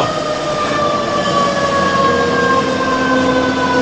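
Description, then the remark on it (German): A fire engine siren blares loudly outside an open window, a sustained wailing tone that holds steady with a slight drifting pitch over a rumbling street background, with no one speaking; a second fire engine comes from the other side. “Da kommt ein zweiter tatsächlich. Von der anderen Seite.”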